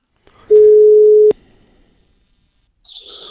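A single steady telephone ringback tone sounds once, loud and clear for under a second before cutting off, followed by quiet line noise and faint hiss, as a phone call is being placed.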